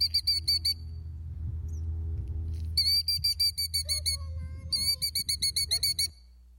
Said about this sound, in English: And this bird was protecting her eggs. Let me show you what happened.